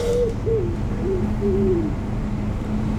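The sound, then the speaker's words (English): Several soft, low cooing calls from pigeons repeat in a loose rhythm, each note gently falling, heard over a steady rumble of outdoor background noise. “Welcome to the pigeon land.”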